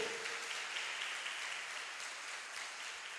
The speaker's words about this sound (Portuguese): Aplauda mesmo ao Senhor.